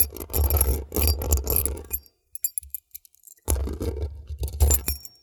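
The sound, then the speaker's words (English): Keys scrape and jangle right against a microphone, loud and close, with heavy handling thumps. Two long rough bursts are separated by a pause of scattered metallic clinks, and nobody talks. “This is going to be the pre show, me scraping keys against the microphone.”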